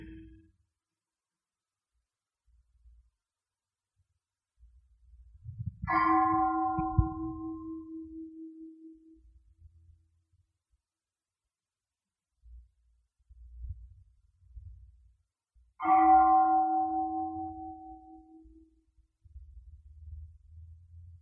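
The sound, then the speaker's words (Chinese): A bell is struck twice during a Buddhist mindfulness teaching, when the teacher stops speaking. The strikes come about ten seconds apart, each ringing out as a clear, mid-pitched tone that slowly fades. Between the strikes there are only soft, low rumbling noises. “龙婆停止讲的时候，我们听那个钟声的时候，有时候我们会觉知自己，有时候我们会跑去想，有时候跑去听钟声。”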